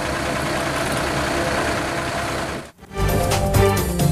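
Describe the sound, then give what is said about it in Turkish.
Heavy diesel construction machinery owned by the municipality and various institutions rumbles and idles steadily with a deep, loud engine drone, briefly dropping out before resuming with clattering mechanical noise as it clears debris after a landslide. “Belediye ve çeşitli kurumlara ait iş makineleri bölgede temizlik çalışması yapıyor.”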